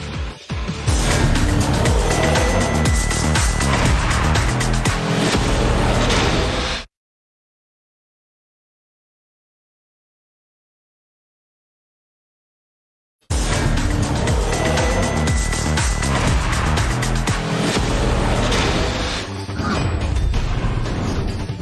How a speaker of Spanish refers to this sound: se encienden los motores, todo sobre el Gran Premio de Hungría en la Fórmula 1.